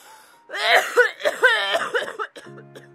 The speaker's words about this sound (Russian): Теперь она еще и кашляет. Теперь и кашляет, и смеется.